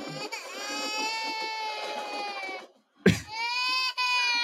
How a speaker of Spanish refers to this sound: Llorando ahí, agarrándose la pierna. Ah, me dieron, que esto, lo otro.